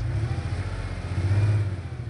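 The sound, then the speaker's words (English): A car engine revs with a deep, steady rumble, loud, holding its pitch for a couple of seconds as if pulling away, with no voices. “And I could see a huge choice of cars and drive away the same day?”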